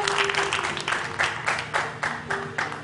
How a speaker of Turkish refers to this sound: Büyük bir alkış istiyorum.